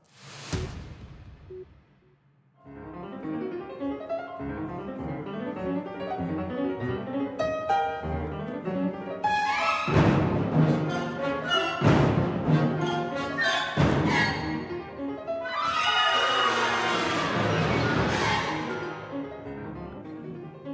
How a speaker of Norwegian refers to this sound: Dette er fra Olavshallen i Trondheim i går kveld, da Christian Ile Hadland urfremførte Helge Ibergs klaverkonsert 'Blom'. Bloom sammen med Trondheim Symfoniorkester, og Bloom er ifølge komponisten et triptykk for klaver og symfoniorkester.